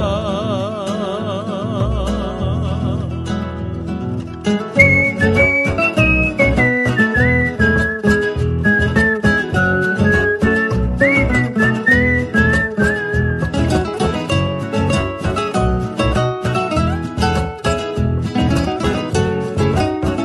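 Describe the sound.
A tune is whistled in a high, wavering melodic line over a busy, steadily pulsing instrumental accompaniment that kicks in after a short, quieter opening. No one speaks.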